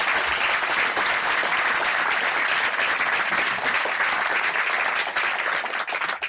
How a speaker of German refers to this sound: auch wenn der Name nicht zutrifft, Sie sind gut gelaunt, Ihr Applaus bitte.